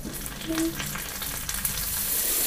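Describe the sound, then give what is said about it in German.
Grasshoppers frying in a pan give off a steady, dense sizzle with crackling pops scattered throughout, and a brief low tone rings out early on. No one speaks. “Hier, diese Heuschrecken. Ne? Ja, es, brät aber schon.”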